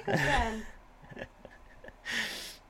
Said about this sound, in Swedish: Här alltså... är en katt som pratar med dig.